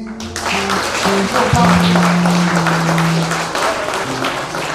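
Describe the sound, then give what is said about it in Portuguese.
A church audience applauds the Lord with dense, steady clapping that fills the whole clip, while sustained organ or keyboard tones hold beneath the noise of the crowd. “Aplauda o Senhor.”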